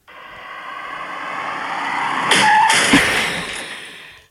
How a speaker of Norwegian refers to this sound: Det er jo ikke meg, for det er åpenbart en bil som krasjer.